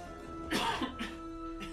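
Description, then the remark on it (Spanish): A short cough, one strong harsh burst followed by two smaller raspy coughs, heard alone over a steady low background hum with no talking. “Salud. Salud.”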